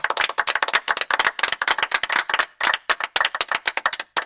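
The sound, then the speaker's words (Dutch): A single person applauds themselves, clapping rapidly and steadily for a few seconds, sharp hand claps in a quick, slightly uneven rhythm with no voices. “Dat is waar ik mezelf echt nu een applaus voor geef.”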